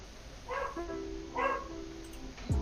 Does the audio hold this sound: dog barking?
yes